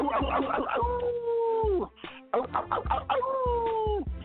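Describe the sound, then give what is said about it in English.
A person imitates a dog howling twice in a row, each call starting with short yelping bursts before stretching into a long, wavering tone that slides down at the end. Loud. “That's a pretty good dog.”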